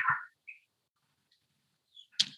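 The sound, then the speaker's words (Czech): Birds squabble outside a window: a few short, sharp chirps and harsh calls, heard faintly in quiet bursts, with near silence between them and a scratchy flurry near the end. “mě se tady há, eh, hádají ptáci před oknem.”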